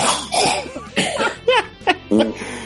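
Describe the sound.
A man coughs several times in short, uneven bursts at close range, with some voiced, laugh-like sounds between the coughs.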